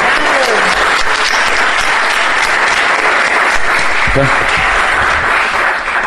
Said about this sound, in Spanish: Así que démosle un enormísimo aplauso.